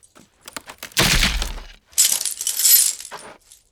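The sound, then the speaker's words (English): An anchor is pulled and tears from wood, which cracks and splinters apart in two loud bursts of tearing and crunching, the first with a heavy low thud, preceded by a few small creaks and clicks. “They pulled, and the anchor tore from the wood with a hail of splinters.”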